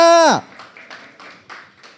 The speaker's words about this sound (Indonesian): Ayo, sorak-sorai kemuliaan buat Raja Damai kita. Haleluya.